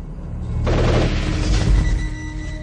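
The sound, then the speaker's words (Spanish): A sudden burst of gunfire erupts after a brief low rumble, a dense volley of shots with a booming undertone that rattles on for about two seconds, loud, with no voices, as people, among them clergy and bishops, are shot down while climbing a mountain. “una visión de muchas, muchas personas, muchos clérigos entre ellas, obispos, uno de ellos de blanco, presumiblemente el Papa, que suben por un monte y caen abatidos a tiros, y que cuando el obispo de blanco llega a la cima del monte, es asesinado.”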